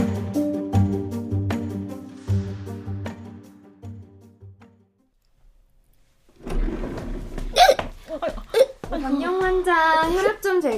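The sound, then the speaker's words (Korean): A few sharp, abrupt hiccups from a startled young son burst out, interspersed with a child's wavering whimpers, after a stretch of steady tonal sound and a brief silence. “아유, 웬 딸꾹질.”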